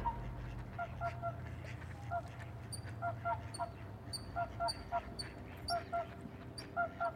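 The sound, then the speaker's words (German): Water birds on a bay call and honk back and forth at night in repeated bursts, some nasal and harsh, over a steady low rumble of quiet night ambience, several birds calling. “Dann gehört die Nacht wieder den Wasservögeln.”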